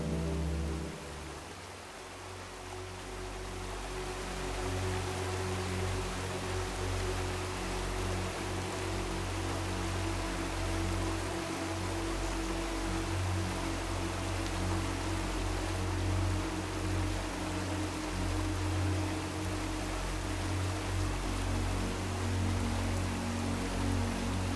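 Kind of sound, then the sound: nature, waterfall water rushing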